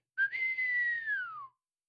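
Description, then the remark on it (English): A single clear whistle given to a sleigh team, held steady for over a second before gliding downward and fading out. It is fairly loud, with no talking. “He sprang to his sleigh, to his team gave a whistle”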